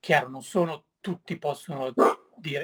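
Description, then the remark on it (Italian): A dog barks in several short bursts, interleaved with and partly overlapping a person talking. “scusate il cane, ma abbaiato.”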